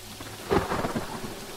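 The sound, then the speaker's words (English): A sudden thunder clap with lightning bursts out over steady rainfall in the dark, its loud crack rolling into a brief rumble before the patter of rain carries on alone. “Lightning illuminated the dark briefly in a thunderous clap, and Peggy ducked instinctively as if it were a spotlight trained directly on her.”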